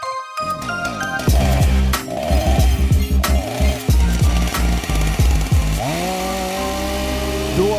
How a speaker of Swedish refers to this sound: var motorsågen igång